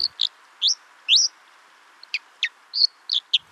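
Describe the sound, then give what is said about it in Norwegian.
A white-throated dipper, Norway's national bird, gives a series of about ten sharp, high-pitched chirps at an uneven pace over a steady rushing water-like hiss, with no voices present. “Du kan jo ta f.eks. sjølve nasjonalfuglen vår, eh, fosskall.”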